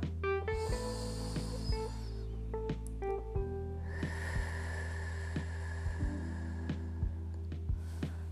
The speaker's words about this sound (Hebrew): אז בואו ניקח נשימה ראשונה. אני בחרתי אור לבן. ואני שוב נושמת נשימה עמוקה.